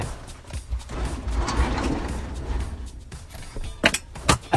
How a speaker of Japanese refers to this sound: ちょっとあの、家のですね、あの、襖というか、ガラス戸みたいなちょっと開いておりましたので、今閉めたんですが